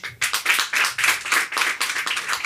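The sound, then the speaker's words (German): An audience claps together to vote for the option 'one week without lying', in a dense, steady patter of overlapping hand claps, fairly loud and sustained for a couple of seconds, with no voices. “Wer ist für eine Woche nicht lügen? Klatschen bitte.”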